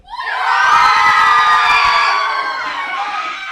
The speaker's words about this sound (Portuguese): estamos fazendo uma entrevista é, com a sala em si, né? Pra ver quem, é, quem prefere Marvel ou, é, ou DC. É, quem gosta da Marvel, dá um grito.